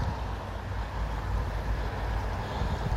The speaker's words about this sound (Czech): Právě můžete slyšet silnici první třídy, kde je velký provoz.